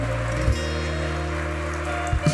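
A crowd applauds loudly and continuously, a dense, steady patter of many hands clapping over sustained low musical tones, with no voices standing out.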